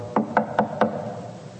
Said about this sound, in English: And a knock comes at the door.